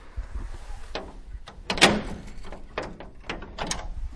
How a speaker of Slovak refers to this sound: tak spolu vojdeme teraz do krypty, musíme odomknúť túto kovovú bránu, tak dúfam, že sa nezlakneme toho zvuku.